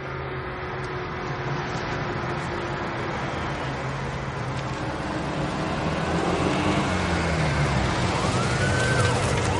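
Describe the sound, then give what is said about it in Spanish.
A car arrives at a power plant, in front of the administration building, its engine rumble blending into a steady wash of broad noise that swells slightly toward the end, with faint rising whine-like tones briefly appearing in the last seconds. “Llega un coche.”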